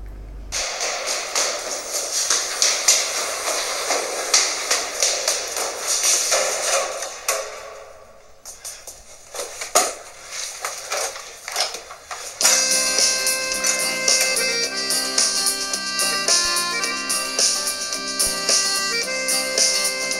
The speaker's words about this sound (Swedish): Så här kommer en sång om min absolut favoritspelare. Här kommer den.